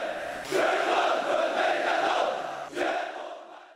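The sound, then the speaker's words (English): Thousands of Chinese soldiers at a military parade broadcast on national TV roar their loyalty to President Xi Jinping in unison, a loud sustained collective shout that swells, dips briefly, then surges again before fading out. No individual speech. “Just last month, thousands of soldiers screamed their loyalty to their president in a tub thumping military parade broadcast on national TV.”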